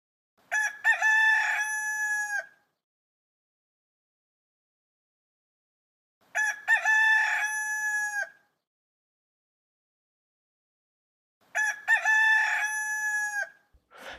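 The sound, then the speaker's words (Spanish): A rooster crows three times, each loud, drawn-out cock-a-doodle-doo separated by several seconds of silence, clear with no other sounds around it. “Cantó el gallo, cantó el gallo.”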